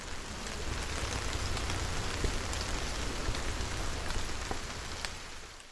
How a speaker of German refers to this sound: Im Wald war es dann wieder ganz still, nur der Regen hat gerauscht.